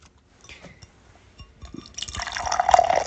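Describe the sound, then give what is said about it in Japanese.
A winter limited-edition golden beer is poured into a Starbucks mug, starting with a few faint clinks and drips, then building into a steady, rising glug and splash of filling that grows louder toward the end. “うんね、今年もね、大活躍の予感しかしておりませんけれども、早速ですが、冬季限定のお酒を継がせていただきたいなというふうに思います。”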